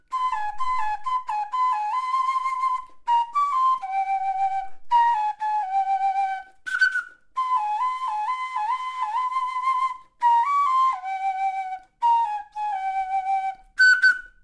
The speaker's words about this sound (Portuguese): Em cada grupo de Chiloli há pelo menos três homens que assumem os sons do Pito Doshi na animação da atuação do grupo.